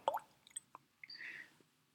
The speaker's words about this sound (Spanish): Entonces, eh, si no es amigable, podemos hacer la prueba echándole un poco de agua.